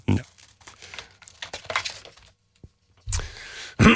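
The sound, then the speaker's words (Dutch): A card being drawn from a deck: dry papery rustling and scraping in uneven bursts, a brief click, then two louder swishes toward the end. No voices are heard. “Ehm, zullen we nog een kaartje trekken?”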